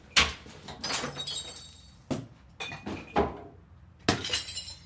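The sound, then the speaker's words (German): Glass preserve jars of home-canned cherries, strawberries and red cabbage from the 1970s, cleared out of a cellar, shatter one after another in a container outside the front door, several loud, bright crashes spaced a second or so apart, each trailing into tinkling shards with no voices. “Jetzt landet alles auf dem Container vor der Tür.”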